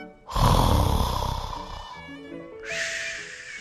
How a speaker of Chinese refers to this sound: 那里，就在鸭子的床底下，有一只。小小的老鼠正睡在一张小小的床上，轻轻的打着呼噜。